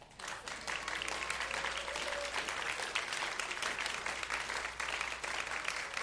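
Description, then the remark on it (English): A large audience applauds steadily for several seconds, a dense, even wash of clapping at a consistent level from start to finish, clapping for the fathers who have stood up. “Stand up if you're a dad, and then everybody can clap for them.”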